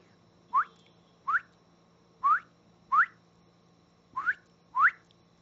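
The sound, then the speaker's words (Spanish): A person whistles a series of six short, rising chirps at steady intervals, mimicking the call of a small creature at a water tank in a garden. The whistles are clear, with no talking and only faint background hum. “Y yo le pito a un bichito, que no sé qué bichito es, pero me contesta.”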